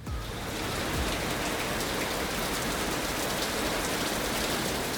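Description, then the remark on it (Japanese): Torrential rain from a linear rainband pours down outside in a steady, dense, loud roar, with the hiss of countless drops drumming on surfaces and overflowing rain gutters gushing water like a waterfall; no pauses or voices throughout. “凄まじく降りつける雨が外をしらませている雨どいは機能していないそこから溢れた雨水がごぼりごぼりといって滝のように吐き出されている”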